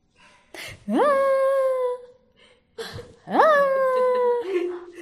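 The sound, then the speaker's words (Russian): An adult voice imitates a child's whimpering cry: two drawn-out, rising wails separated by a short breathy gasp, fairly loud, with no other talking. “И если я злюсь, вот я сейчас реву, да, если бы мы могли представить по-другому, я сейчас реву, я там что-то делаю, я там бьюсь, и периодически, если мы будем внимательны к ребенку, то он делает вот так.”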